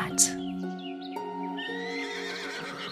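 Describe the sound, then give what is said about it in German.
A horse whinnies in a long, wavering neigh that rises and trembles before tapering off, with a quieter second call trailing at the end, on a mountain pasture by a lake where four brown, two black and one white horse stand. “Plötzlich ist der See zum Greifen nah und du erkennst die ersten Tiere, die hier auf einer Weide stehen und das Leben in den Bergen genießen. Es sind vier braune, zwei schwarze und ein weißes Pferd.”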